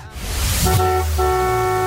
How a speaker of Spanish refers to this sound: Obviamente con esta promoción del bocinazo en el cual XFM 97.3 apoya a los pequeños negocios. Adelante con los bocinazos de hoy